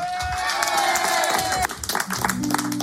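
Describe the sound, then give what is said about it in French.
An audience at a live performance on the radio station Fréquence Plus claps and cheers steadily, a dense crackle of many hands under a held electronic tone that cuts off, before a few low musical notes enter at the end. “Applaudissements”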